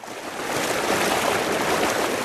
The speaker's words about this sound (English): Water which flows down to where the east and west branches of the Eight Mile River converge, what's called the river's main stem.